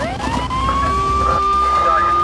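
A police car siren sweeps upward in one loud wail, then holds a steady high tone for the rest of the couple of seconds, with a low rumbling bed underneath.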